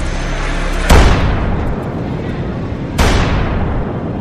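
The Han River pedestrian bridge being blown up around 2:30 a.m. on June 28, 1950, three days after the Korean War broke out: two loud, sharp explosive blasts about two seconds apart, each followed by a heavy, sustained roaring rumble that fills the whole clip.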